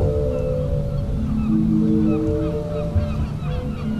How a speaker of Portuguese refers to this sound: As ondas batem na rocha e o órgão do mar imita este som é na marginal que se para para ouvir o mar